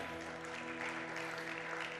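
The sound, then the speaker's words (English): An audience claps steadily throughout, a dense, even wash of many hands at moderate loudness, with a sustained musical tone holding underneath. “Everyone clapping, clapping, clapping.”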